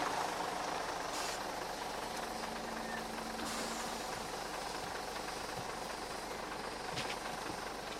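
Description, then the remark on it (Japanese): A bus engine idles at a bus stop with a steady, low rumble and a faint mechanical knock, holding an even level throughout with no one speaking. “山形邸を後にした鍋島は近くの停留所で偶然止まったバスに乗り込んだ”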